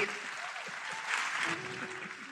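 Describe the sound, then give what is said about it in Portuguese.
A crowd applauds the band steadily, a dense wash of clapping hands that holds at an even level for a couple of seconds with a slight swell midway, and a faint voice beneath it. “Gente, salve de palmas pra nossa banda aqui, gente, essa galera toda aqui.”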